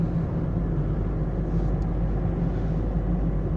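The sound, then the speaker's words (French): A steady low rumble of a car driving on the road on the way to work, heard from inside the cabin, with constant engine and tire drone and no speech. “Voilà, donc on est sur, bah, on est sur la route du taf, hein, comme d'hab.”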